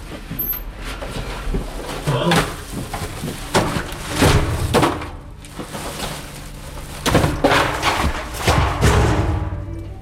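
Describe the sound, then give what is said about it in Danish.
Bags come thudding down a chute in a steady run of heavy, dull thumps and bangs, several striking in quick clusters, with a low rumble between impacts and faint voices in the background. “Og der kom de jo flyvende ja. ned gennem øh, skakten.”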